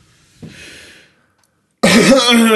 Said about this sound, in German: Ich muss mich kurz räuspern